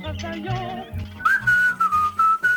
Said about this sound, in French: Puis là aussi, tu sais, genre il siffle.